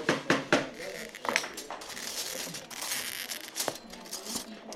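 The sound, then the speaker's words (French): A few sharp clicks, then a steady crackling scratch as a cutter with a small tungsten carbide wheel is pulled across glass along a paper pattern in a workshop for several seconds, with no voices. “Vous avez une molette, donc avec une petite roulette en carbure de tungstène. Et donc cette molette, il va falloir la poser contre le papier et vous allez tirer.”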